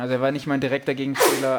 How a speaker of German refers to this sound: aber Gesundheit.